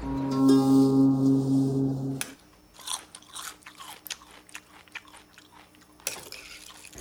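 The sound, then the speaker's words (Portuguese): Loud, sloppy open-mouthed chewing of food, with wet smacks and crunches in an irregular rhythm, following a brief sustained musical tone that cuts off abruptly. “Você está fazendo barulho com a comida outra vez”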